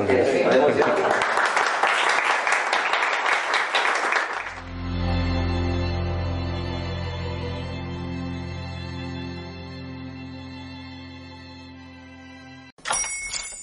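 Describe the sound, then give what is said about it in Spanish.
A loud burst of clapping and cheering fills the first four seconds, then gives way to a sustained, ringing musical chord that slowly fades. “Yo creo que ahora sí que se merece el aplauso, ¿no?”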